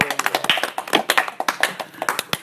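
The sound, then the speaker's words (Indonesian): A short burst of hand clapping, a few people clapping together in quick, slightly uneven rhythm. The claps are crisp and fairly loud, with no talking during the applause. “Tepuk tangan dulu.”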